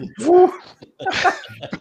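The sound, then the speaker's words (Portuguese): Two short hooting calls, loud and breathy, like a person imitating an owl with their voice. The first call is a rising hoot and the second comes after a brief pause. “Faltou é. coruja só.”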